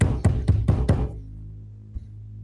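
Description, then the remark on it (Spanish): A metal door is pounded five times in quick, steady succession, loud. A low metallic ring hangs on after the final blow, with one faint knock near the end. “Escuche su movimiento, un sonido metálico de la puerta siendo aporreada.”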